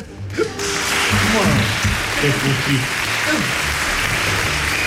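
A burst of steady, dense clapping from a group begins almost at once and keeps going at an even level, with people talking and calling out over the applause.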